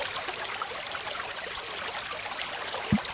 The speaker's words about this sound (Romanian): Ia uzi, o apă curgătoare. E ca o apă curgătoare.